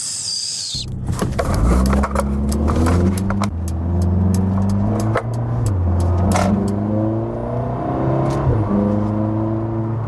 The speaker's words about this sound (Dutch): Eh, je ging op pad met een testauto. De Mercedes AMG CLA 45 Coupé S.